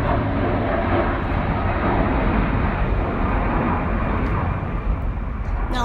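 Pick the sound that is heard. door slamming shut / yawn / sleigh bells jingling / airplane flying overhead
airplane flying overhead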